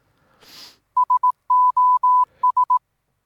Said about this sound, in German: Genau, dann beginnen wir doch einfach die Folge heute mit einem herzhaften Nieser. Achtung.